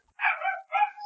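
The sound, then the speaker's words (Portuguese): A pet dog barks twice in quick succession, two short, fairly high-pitched yappy barks, with nothing else going on around them. “se vocês ouvirem o cachorro latindo, é o meu cachorro”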